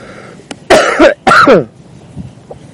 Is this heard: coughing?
yes